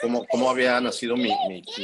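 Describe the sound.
An adult talks steadily while a young child fooling around chatters and squeals in a high voice in the background, overlapping the speech in short bursts.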